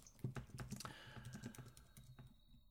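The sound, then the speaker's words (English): Rapid typing on a computer keyboard, a quick run of sharp plastic key clicks, irregular in rhythm and moderately quiet, with no voices present. “I'm clicking onto the internet, brother.”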